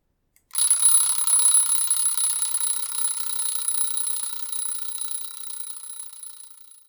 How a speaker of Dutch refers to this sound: Stel je voor dat je elke ochtend wakker wordt met het geluid van een rinkelende wekker.